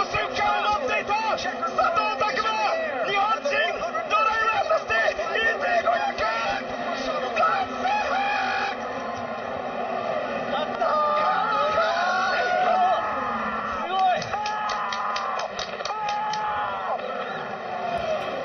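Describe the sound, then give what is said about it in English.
A race crowd screams in elation as driver Takuma Sato wins a race on the final lap, with Japanese commentary. The sound is a loud, sustained roar of high excited voices and shouting that stays intense throughout. Strained cries pierce through the din, and Sato's own reaction comes at the end. “those screams are at the end, Sato's reaction, which I just love so much because it's proof that no matter what language you speak, the elation of winning a race like this is the same.”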